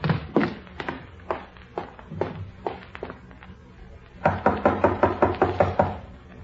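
Knuckles rap on a mother's bedroom door in the morning as her two grown children try to wake her, first in slow, spaced knocks, then after a short pause in a quicker, louder run of about nine raps, with no voices.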